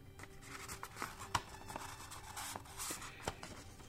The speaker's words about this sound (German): Ich rolle das Stück Papier zusammen